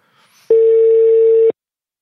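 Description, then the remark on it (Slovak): A steady telephone tone sounds for about one second, loud and clear, after a faint murmur, then cuts off abruptly into silence, while someone phones a tax advisor. “úplne zjavné, že daňoví poradcovia majú pred koncom roka e, veľmi e, ťažký čas, takže dúfam, že sa nám podarí e, mu zavolať, pretože určite e, má na telefóne veľa klientov v tejto chvíli.”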